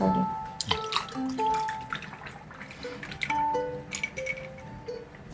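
Sparkling water is poured into a glass, a splashing stream followed by steady fizzing and tiny popping bubbles, with a few brief clinks, heard alone without talking.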